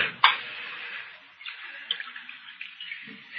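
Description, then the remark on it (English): Liquor is poured from a jug into a cup, opening with a small clink and then a steady splashing trickle that carries on for a few seconds, with no one speaking. “Here's the jug, Mr. Hawtree, and I brought you a cup, too. Pour me some.”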